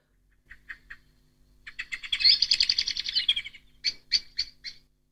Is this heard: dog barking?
no